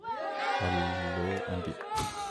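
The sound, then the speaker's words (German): A short burst of canned crowd cheering played as the last co-host is introduced. It is a dense wash of many shouting, whooping voices with rising yells, loud and sustained for a couple of seconds. “Jubel aus der Dose.”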